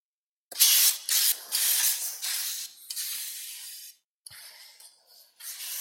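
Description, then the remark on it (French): A sound effect made to resemble a butcher sharpening a knife, also like ice-skate scraping: a run of harsh, hissing scrape strokes in quick succession, loud at first, then a short pause and a few softer strokes. No one speaks. “C'est quoi Bah T'entends bien, c'est un boucher qui est en train d'astiquer son couteau, quoi.”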